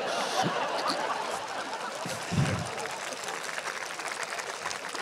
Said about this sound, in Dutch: Ook voor die anderen, dat is inderdaad een applaus waard.